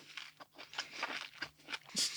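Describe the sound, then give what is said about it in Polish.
Crisp crunching of an ultra juicy apple with speckled skin being bitten and chewed: a quick run of wet, crackly bursts in an uneven rhythm, ending with a louder crunch. “Jest tak soczyste, że całą rękę mam obklejoną w ogóle w słodkim soku, ale ta chrupkość, którą ono ma, ta nakrapiana skórka w ogóle, przecież ona jest jak jakaś normalnie zebra.”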